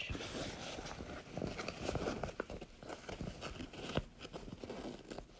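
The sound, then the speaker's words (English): Continuous crinkling and rustling of paper scraps and trash being handled while searching for missing gems, with irregular sharp crackles and soft thumps as the debris is pushed around. “It's more trash or just like paper scraps.”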